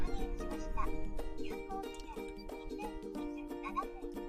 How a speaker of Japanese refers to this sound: ちょっと喋りすぎて暑いからクーラーつける。ね。ごめん、エンジンつけて、クーラーもつけて、うるさかったらごめんなさい。